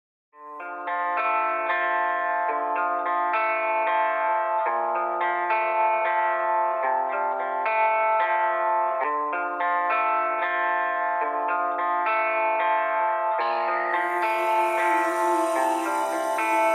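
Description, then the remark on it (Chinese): Instrumental opening of a rap track by a new-generation rapper: steady, effects-heavy synth chords with a chorus-like shimmer, played at an even loudness with no vocals, then a bright hissing swell rises near the end. “接下来呢，让我们一首新生代饶舌歌手的创作，让大家休息一下，沉淀一下。”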